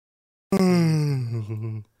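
A single loud yawn: a sudden breathy intake that turns into a drawn-out voiced groan, sliding downward in pitch for over a second before cutting off.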